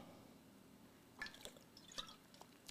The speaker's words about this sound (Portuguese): vou dar um gole d'água agora, ó.